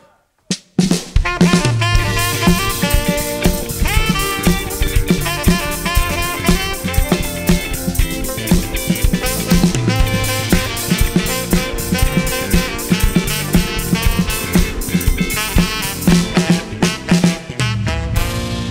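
A rap track plays loud and up front, a dense mix with a steady, punchy beat and deep bass running continuously after a brief silent start.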